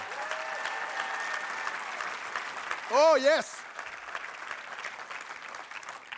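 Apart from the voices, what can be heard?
audience applause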